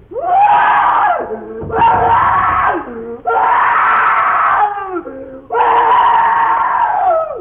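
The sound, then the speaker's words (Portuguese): A young man screams in terror at night in a house's sitting room, where he slept, four long, loud, anguished cries separated by short ragged breaths, with no other sounds around them. “A barulheira, a gritaria vinha da sala de visitas, onde, na falta de melhor acomodação, dormia o Plácido.”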